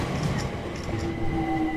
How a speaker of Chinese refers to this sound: 来到露天站台，这是伦敦地铁路上的一段轻轨。